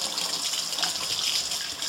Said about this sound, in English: I have to wash the caramel off my fingers. Sorry about the noise, because I use my finger to clean off the spatula.